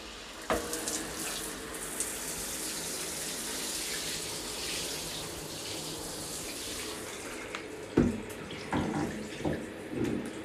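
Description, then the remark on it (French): Water runs steadily from a shower, a continuous hiss that fills the whole stretch, with a few brief knocks and splashes toward the end. No one speaks. “J'avais très envie de te laisser un petit message et de prendre euh, une douche avec toi.”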